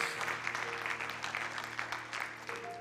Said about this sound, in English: Come on, let's give the Lord a round of applause.